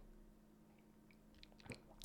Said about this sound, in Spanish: Pero un sorbido de café siempre se agradece para, para, poder hablar bien, ¿vale?